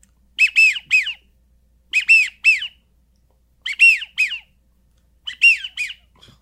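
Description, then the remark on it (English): A widgeon duck call whistle, part of a single device on a lanyard that also makes teal calls, blown in four bursts, each a quick run of three high, bright, wheezy whistled notes separated by short pauses, with no talking. “That's a perfect widgeon.”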